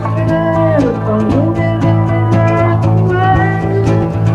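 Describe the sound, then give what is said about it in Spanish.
A high falsetto voice improvises a loose, wordless melody for a new song over a loud rock band, with a steady bass line and regular drum hits driving beneath it. “y ante nuestros oídos incrédulos de repente con, mete una voz en falsete y vemos surgir un tema que no existía.”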